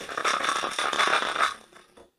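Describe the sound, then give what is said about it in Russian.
Loose metal plates from a broken transmission belt, which fell apart when its bands tore, jingle and clatter in a small box, a dense, bright shower of clinks for about a second and a half before trailing off. “И вот у меня тут в коробочке от рассыпавшегося ремня, из-за того, что у него порвались как раз вот эти вот ленты, вот огромное количество прямо вот, вот этих вот пластиночек.”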